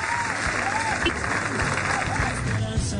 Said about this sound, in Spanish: con un fuerte aplauso